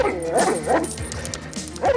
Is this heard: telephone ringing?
no